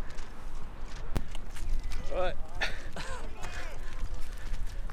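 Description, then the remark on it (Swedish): Running footsteps on an outdoor path at the start of a running race across the middle of a heath, a steady patter of soft thuds, with voices and breathy vocal sounds over a constant wind-like rumble. “Så, nu har vi precis bränt av här i starten som går mitt på heden.”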